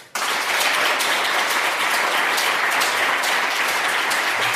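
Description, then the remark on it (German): An audience, told to start clapping on a countdown of 3, 2, 1, bursts into applause all at once and keeps clapping steadily at full volume, a dense, even wash of many hands with no voices standing out. “Fangt an zu klatschen auf 3, 2, 1 und.”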